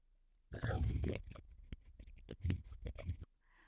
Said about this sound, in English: I need to take a sip of my water.